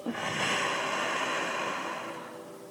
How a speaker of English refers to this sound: Let's focus on our breathing one more time. We're going to take a deep breath in Deep breath out.